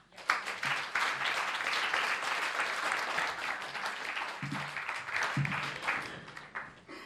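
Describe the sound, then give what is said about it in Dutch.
An audience breaks into sustained, warm applause for three panel guests being introduced, including China expert Jonathan Holslag, a dense wash of many hands clapping at steady loudness for several seconds before tapering off at the end. “Ehm, ik kondig ze allereerst even alle drie aan en dan geeft u ze gewoon een hartelijk applaus.”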